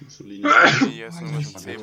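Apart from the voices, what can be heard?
sneeze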